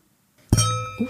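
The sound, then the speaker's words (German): Wine glasses clink together once in a toast, a bright strike followed by a clear ringing tone that slowly fades, with no talking. “Brüstchen miteinander. Zum Wohl.”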